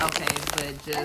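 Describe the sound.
A potato chip bag crinkles and rustles in quick, crackly bursts as a small child wants the chips, running underneath a person talking over the top.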